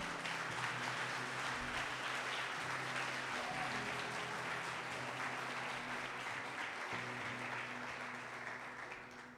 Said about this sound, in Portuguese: Quem crê nisso, dá uma salva de palmas ao Senhor.